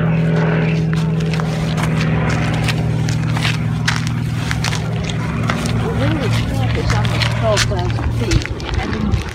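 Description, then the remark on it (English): Gas-powered propeller airplanes drone steadily overhead throughout at Walden Ponds on a Sunday morning. Their engine hum is loud and continuous while birds chirp and twitter in the outdoor nature area. “here's a little sound from Walden Ponds on a Sunday morning with the airplanes flying around that beautiful nature area.”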